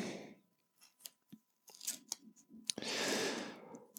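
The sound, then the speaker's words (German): Double-sided tape being handled and stuck onto a small gift about the size of a paperback book: a few crisp clicks and crinkly snips, then a longer rasping peel as a strip is pulled and stuck down, with no one talking. “Ähm, während ich das hier so mache, jetzt klebe ich das.”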